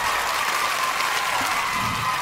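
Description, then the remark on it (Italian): A crowd applauding, a steady dense patter of many hands clapping at once, fairly loud and sustained throughout with no voices over it. “Un applauso, cosa dite? Bravissimo. Applauso.”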